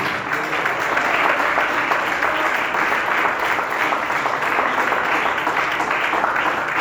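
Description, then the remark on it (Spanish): Sustained applause from a sizable audience asked to give a loud round of applause, a dense steady patter of many hands clapping, continuing evenly throughout without voices standing out. “Denle un fuerte aplauso que el Señor le bendiga.”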